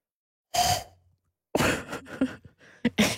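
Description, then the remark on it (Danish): A woman blows air into her cupped hands, a few breathy, hissing puffs, one short burst, a pause, then a longer string of uneven blows, trying and failing to make an owl-like hoot. “sidder nu og puster ind i sine hænder og siger, det kan hun ikke.”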